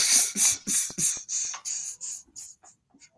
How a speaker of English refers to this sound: All right, so to everybody that just heard that shit, I definitely that was my cat. Was that a couple of hairballs? Hairballs and shit. Oh, that was yeah, that was. Sound like a beatbox right over that bitch.